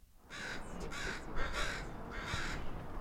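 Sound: crows cawing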